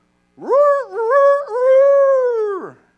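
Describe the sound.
A person vocally imitates a puppy a few weeks old, which lived under a chicken coop with a rooster, crowing like a rooster: one drawn-out, wavering call that rises, holds with a couple of warbles, then drops away, loud, with no other sounds.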